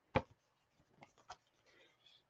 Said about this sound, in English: If I want to do like a fairly soft stroke, like for colored pencil, that's pretty soft. Like most people, colored pencil does something more like this, but I really enjoy how rich that can get.